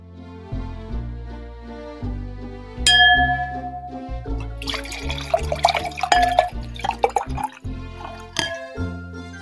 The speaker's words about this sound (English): Well, the sounds of sherry being poured lets us know it's time to head back to the Christmas kitchen for Mrs. Claus's tasty treats for your holiday fun times.